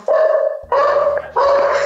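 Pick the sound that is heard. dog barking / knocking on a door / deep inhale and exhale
dog barking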